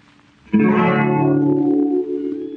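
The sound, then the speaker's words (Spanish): An old tango recording from 1933, played on air, ends on a loud, sustained, richly harmonic chord that rings steadily for about two seconds, then drops slightly in level. No voices are heard. “Grabada en 1933, tiene un lenguaje bien lunfardo típico de los barrios bajos de Buenos Aires”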